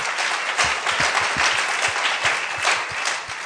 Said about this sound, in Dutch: Can we give them a hand? I mean, that's Laten what... we daar een applaus voor geven.